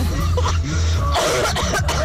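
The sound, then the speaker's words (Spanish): A loud bout of coughing mixed with harsh throat clearing, several rough bursts in quick succession filling the whole moment, with no words spoken; a coughing fit brought on by laughing hard. “Casi me ahogo de la tos que me ha dado.”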